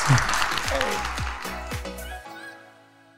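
An audience applauds in a dense burst of clapping that gradually thins out and fades, leaving a few sustained musical tones at the end.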